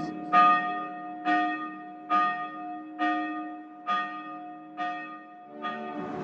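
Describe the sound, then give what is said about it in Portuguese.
A bell rings steadily, about seven evenly spaced strikes with long resonant hums between them, clear, with no voices present. “O sino já fazia parte da história da Ipebud.”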